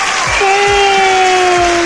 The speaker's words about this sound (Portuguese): Aplausos, edição.